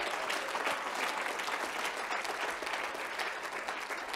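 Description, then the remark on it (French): A church audience applauds in acclamation of the Lord at a morning service, a dense, steady wash of clapping that holds at an even, fairly strong level for about four seconds, with no clear voices standing out. “Donne au Seigneur des acclamations prophétiques ce matin.”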